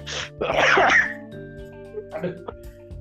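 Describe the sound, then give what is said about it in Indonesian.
A person coughs: a short burst, then a loud, harsh, rasping cough, followed by a quieter throaty sound and brief vocal noise over a steady background hum. “Kok lo yang batuk? Sampai batuk.”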